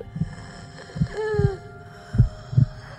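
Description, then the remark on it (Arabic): A muffled heartbeat sound effect thumps in low pairs, about three double beats over a steady electronic hum, with a brief rising tonal whine partway through, marking an injured girl found to still have a pulse. No voices. “يا جماعة يا جماعة فيها نبض فيها نبض”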